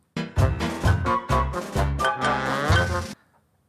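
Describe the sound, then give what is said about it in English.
A short, loud dissonant musical passage of rich, sustained chords struck in a series of about six accented attacks, with a harsh, clashing harmony before it cuts off abruptly. “It's really horrible sounding musically.”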